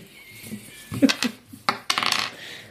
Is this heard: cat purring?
no